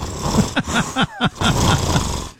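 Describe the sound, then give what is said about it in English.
A person imitates a championship pug's snorting, wheezy breathing with a rapid run of moderately loud nasal snorts and grunts, roughly five or six in quick succession, with no talking. “What is a championship pug? I don't. Yeah, what sort of championships do they engage in exactly? Breathing like this.”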